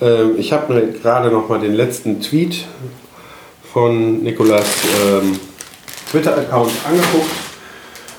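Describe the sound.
A man speaks in German in a kitchen, his voice carrying a noticeable room echo that lingers slightly after each phrase, with brief pauses between bursts of talk.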